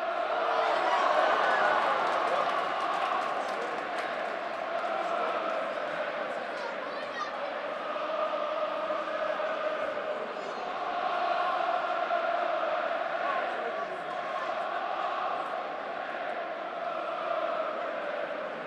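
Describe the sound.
Arsenal fans in a large football stadium roar steadily in stoppage time near the end of an early-season match, with sustained sung chanting rising and falling over a dense wash of voices for the whole stretch, loud and continuous.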